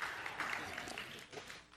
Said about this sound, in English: You can clap.